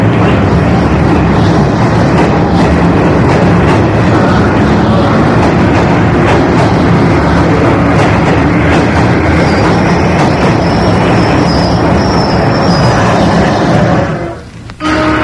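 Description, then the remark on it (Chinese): A train rolls into a station with a loud, steady rumble and clatter. Partway through, a high, thin whistle announcing its arrival sounds for a few seconds before the noise cuts off abruptly near the end. No voices. “已经听到通知火车抵站的鸣笛了，播音员的声音也相继传来。”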